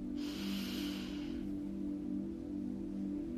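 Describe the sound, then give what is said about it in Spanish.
A single deep inhale through the nose during a guided breathing exercise, a breathy rush lasting just over a second, over a steady low droning hum that continues after the breath fades. “Vamos a repetir cinco veces, respirando por la nariz, inhalando y exhalando.”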